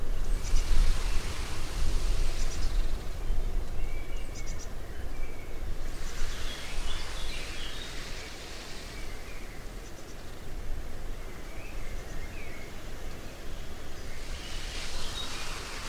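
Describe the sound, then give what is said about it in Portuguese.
A steady, soft wind hiss with leafy rustling through olive tree branches in a park with cypresses and flowers, swelling in gentle waves and rising twice to fuller gusts, while a few faint bird chirps flicker in the background. “O vento suave balança os galhos das oliveiras.”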